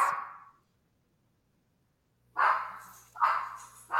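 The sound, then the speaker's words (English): Dogs barking: one bark, a pause of almost two seconds, then a quick series of three loud, harsh barks. No one speaks. “My dogs have just made their appearance.”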